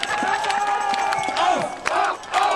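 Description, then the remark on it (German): A large crowd roars with cheering and jeering shouts, applauding a death-penalty fantasy about Green politician Volker Beck on a Saturday; voices overlap in a dense, continuous din with rising yells bursting through, loud throughout. “Und auch auf die Todesstrafen-Fantasie für den grünen Politiker Volker Beck am Sonnabend bekam er dort johlenden Beifall.”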